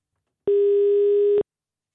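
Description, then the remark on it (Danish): A steady telephone tone, a single constant mid-pitched beep held for about a second, clear and alone with silence before and after. It is heard while a call connects to a woman who has just come out of a 24-hour Danish exam. “Og øh, nu har hun været op til den her 24-timers eksamen, og vi har fået lov til at ringe til hende.”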